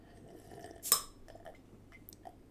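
A person drinks beer from a glass, emptying it as a party trick: one sharp clink or gulp stands out, followed by a few soft, brief swallowing and sipping noises against a quiet background hum, with no talking.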